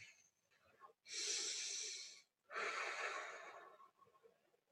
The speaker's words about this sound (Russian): Первое упражнение для снятия тревожности. Глубокий вдох и выдох. Вдох через нос, выдох через рот. Как будто мы дуем на ложечку с горячим супом.